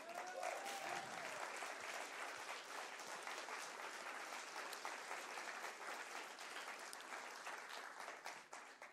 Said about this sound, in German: Ist doch ein Applaus wert, unsere unglaubliche Band, oder?